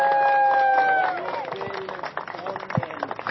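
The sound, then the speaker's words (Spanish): A group applauds the migrants taking part, with dense, uneven clapping that builds after a brief sustained voiced tone at the start, continuing steadily at moderate loudness with a few sharper claps standing out. “Entonces, pues agradecerles a todos los participantes, a los migrantes, un aplauso a los migrantes.”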